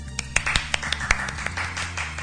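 A brief round of light applause: a handful of sharp, uneven claps pattering for about two seconds over a low steady hum, with no talking.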